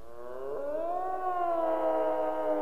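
An elk's bugling cry: a single sustained, reedy whistle that climbs in pitch, then holds steady with rich harmonics, carrying loud and alone for a couple of seconds.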